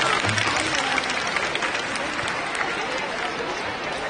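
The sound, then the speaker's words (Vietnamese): A crowd applauds steadily for about four seconds for a person who asked a question. It is a dense wash of many hands clapping at an even loudness, with no voices standing out above it. “rồi à, đây là câu hỏi rất là hay các bạn hãy cho một tràng vỗ tay đối với bạn nào của mình ạ”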